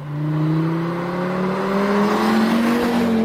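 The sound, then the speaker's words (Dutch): A 2.5-litre five-cylinder car engine revs up loud, its throaty pitch climbing steadily over a few seconds with no one speaking. “Dus het echte volbloed, 2,5 liter vijfcilinder. Zoals we misschien nog heel even kunnen laten horen”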